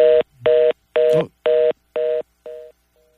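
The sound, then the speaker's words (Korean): A dropped phone call with a spokesman during a broadcast: a series of six evenly spaced electronic dialing tones, steady and clear, the last one fading out, followed by a faint brief tone trailing off. No voices are heard. “전화가 끊겼습니다. 다시 연결해 보도록 하겠습니다.”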